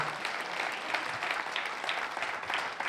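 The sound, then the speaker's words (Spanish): An audience applauds steadily, a dense wash of many hands clapping at once, sustained and fairly loud for the whole stretch with no voices standing out. The applause is given in praise to Christ. “es fuerte el aplauso ahí a Cristo.”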